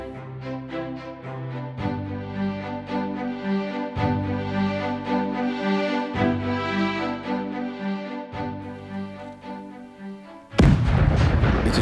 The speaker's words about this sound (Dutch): Een geweldige explosie doet zich horen. Het moet vlakbij ons zijn. Wij rennen naar voren en zien grote rookwolken in de richting van de sternisten. Het blijkt dat op 250 à 300 meter bij ons vandaan één hunner munitiedepots